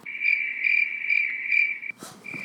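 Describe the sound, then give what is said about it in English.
Crickets chirp in a steady, shrill trill that pulses in quick regular bursts, clear, broken briefly by a soft rustling noise before the chirping picks up again. “Crickets, right?”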